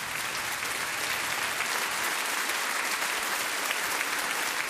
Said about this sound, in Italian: Poi introdusse mio padre e seguì un grande applauso.